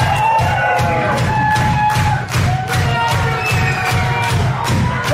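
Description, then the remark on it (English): At a live show, about a fifth of the crowd claps along before a song begins, in a steady, even rhythm, about two claps per second, loud and continuous, with a low thumping beat and some crowd noise underneath. “I'm glad to see everybody clapping.”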